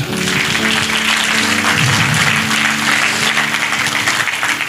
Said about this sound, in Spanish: ¿Cuántos lo creen? Si usted lo cree, dele un aplauso a Él.